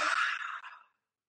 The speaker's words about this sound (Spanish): Totalmente la raíz pública, tocarla, palparla, ponerse una mano ahí colocada sin ninguna intención y simplemente observar qué pasa cuando hago un bostezo.